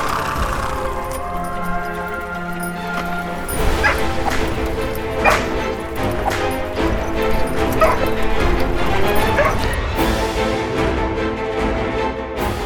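A dog barks in repeated sharp bursts, mixed with high yips and whining whimpers, fairly loud over a steady tonal background throughout, in a French audio drama adaptation of the Sherlock Holmes story L'homme qui grimpait.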